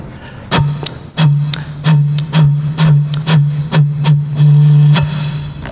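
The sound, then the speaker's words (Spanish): Repeated hollow taps on an empty plastic bottle taped to a second bottle, about a dozen fairly loud knocks in an uneven rhythm, each with a brief resonant ring, with no talking. “Escuchemos cómo suena una botella de plástico vacía.”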